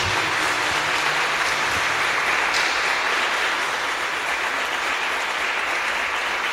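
A crowd of people clapping steadily together for Jesus, a dense, sustained wash of applause without pause, fairly loud, with no one speaking over it.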